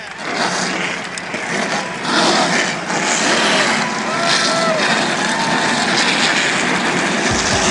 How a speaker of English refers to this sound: WNRI race fans, are you ready? It's time for those most famous words in motorsports. Please welcome the host of Race Chatter, …, to give the command. Drivers, start your engines.